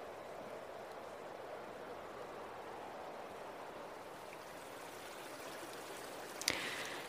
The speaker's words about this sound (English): This river is fed primarily by the snowmelt that begins at the top of Sequoia National Park. So, this is a snowmelt. It's quite soothing to watch it flow like that.